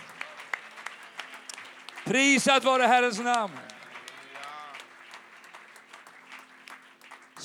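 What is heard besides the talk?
audience applauding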